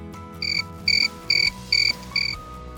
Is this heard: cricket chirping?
yes